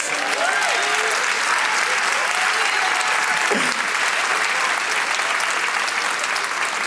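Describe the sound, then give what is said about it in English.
A large audience claps to give praise in a dense, steady wash of applause that holds at full strength throughout, with faint cheers and voices rising through it. “If he did, I, I dare you to put your hands together and give him praise.”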